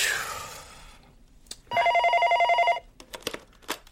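A telephone bell rings in one loud, steady burst lasting about a second, its rapid trill buzzing evenly. Scattered clicks and brief sharp noises follow, with a noisy hiss at the start.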